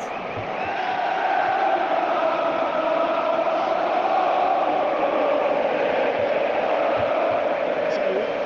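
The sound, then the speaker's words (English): A big stadium crowd cheers in one continuous, dense roar, holding a steady loudness from start to finish with no single voice standing out, as the Newcastle United players do their end-of-season lap of honour after a game against Leicester City. “This sound you can hear now is the Newcastle United players doing their end of season of honour, which was really deserved.”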